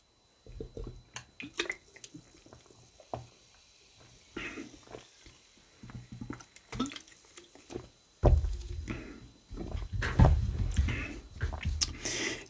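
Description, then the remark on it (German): Someone drinking an energy drink: scattered soft wet sips and mouth clicks, then a louder stretch of gulping and swallowing near the end, with no one talking. “Ich trinke jetzt dann nochmal was und dann machen wir mit Hummeln, Wespen und Bienen weiter.”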